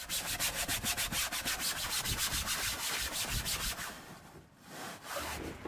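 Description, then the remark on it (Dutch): Rhythmic back-and-forth sanding or scrubbing strokes during chores on a boat, steady, about two per second, easing off briefly near the end before resuming. “geschuurd, geboend, geschropt, haakjes opgehangen. Allerlei dat soort klussen die ik tegenkwam.”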